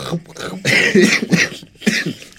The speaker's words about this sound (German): Bringt mich nicht zum Lachen, dann muss ich husten.